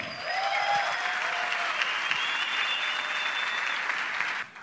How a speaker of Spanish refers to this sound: Así que los invito para que por favor recibamos como se reciben los grandes con un fuerte aplauso.